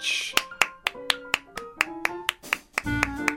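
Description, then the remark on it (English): A thin smattering of applause welcoming host Mel Giedroyc: a dozen or so sharp, separate hand claps, unevenly spaced, as if only one or two people are clapping, with no voices. “Please give a rousing reception to your host, Mel Giedroyc.”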